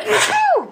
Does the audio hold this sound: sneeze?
yes